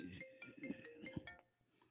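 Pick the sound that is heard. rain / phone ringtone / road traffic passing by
phone ringtone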